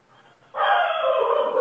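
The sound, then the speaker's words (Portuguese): After a brief near-silent moment, a dog on a small rural property barks loudly in one long, drawn-out, continuous call while looking up at the roof, where small monkeys come. No one is speaking. “Então ele fica olhando pro teto e fica latindo.”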